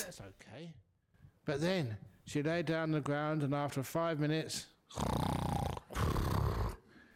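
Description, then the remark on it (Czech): A man's voice imitates the loud snoring of a woman who lay down and fell asleep during a meditation at a Buddhist centre, with two long, rough, rasping snores near the end. Voiced vocal sounds come before them, and the snores stand out loud. “Jednou v pátek večer před mnoha lety jsme začínali meditaci a někde tam v rohu byla tam paní, která poté, co jsem uvedl meditaci, si lehla na zem, což je v pořádku, ale po pěti minutách začala chrápat.”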